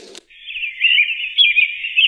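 After a short click, continuous high-pitched birdsong twitters steadily from a sound machine, a bright, busy stream of chirps at moderate volume with no voices.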